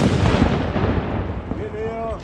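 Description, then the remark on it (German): A ceremonial salute cannon fires the January salute in Hüfingen, recorded from close to the cannon. A loud, heavy boom rolls into a long, rumbling decay; a faint voice is heard briefly near the end. “Ich habe mich nämlich da ein bisschen zu nah an diese Böllerkanone gestellt und dachte mir nichts weiter dabei.”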